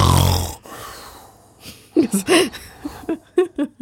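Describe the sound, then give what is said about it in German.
A voice imitates one loud, rasping snore in a short burst at the start, mimicking a sleeper who is silent for a while and then snores loudly once. Afterward, quieter talking and light laughter follow. “Was, bei dir sehr interessant ist, liegst da, man hört manchmal gar nichts und dann geht's einmal.”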